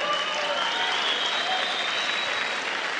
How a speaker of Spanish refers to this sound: Es un aplauso para ella.